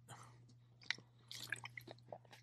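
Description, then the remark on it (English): Someone sips a drink of water: quiet wet slurps, small swallowing clicks and lip smacks over a low steady hum, with no talking. “I mean, let me get a sip of water.”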